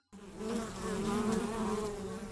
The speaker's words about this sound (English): The first one is buzzing, yeah? Buzzing is a buzzing like a bee.